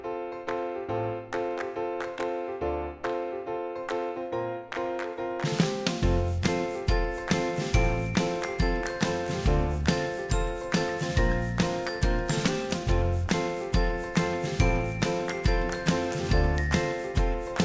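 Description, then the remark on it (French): A short instrumental theme jingle opens with bright, chiming bell-like notes, then a steady driving beat with bass kicks in partway through and carries on to the end, with no voices. “eh bien écoutez, on se retrouve tout de suite après le générique.”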